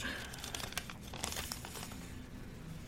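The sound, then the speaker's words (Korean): A handwritten paper note being crumpled and crinkled in a quick run of sharp, irregular crackles that bunch up early and then thin out, set against a steady low background hum. “제가 기억나는 대로 이 쪽지에다가 적어봤어요.”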